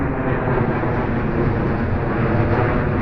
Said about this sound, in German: Der Riesenvogel ist schon von weitem zu hören. Es ist eine Maschine der Swiss, die sehr tief über den Parkplatz des Opfiker Stadthauses donnert.